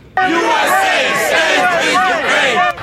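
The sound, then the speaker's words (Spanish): A large crowd at a Sunday demonstration outside the presidential mansion, waving Ukrainian flags, shouting and cheering in support in a loud, sustained roar of many voices, with rising chant-like calls layered over continuous noise, ending abruptly. “Afuera de la mansión presidencial este domingo ondeaban las banderas ucranianas y los gritos de apoyo.”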